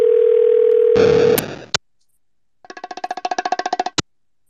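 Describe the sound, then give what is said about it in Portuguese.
A steady phone dial tone as someone places a call gives way to a brief burst of noise and clicks, then a rapid series of pulsed electronic beeps like a call connecting, ending with a sharp click. “Pera que esse cara não tá, vou ligar pra ele rapidão, rapidão, rapidão.”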